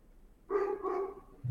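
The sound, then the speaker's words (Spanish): A dog gives two quick barks in close succession, clear, with no one speaking over them. “Madre mía, el perro ese, ¿eh?”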